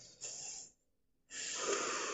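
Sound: deep inhale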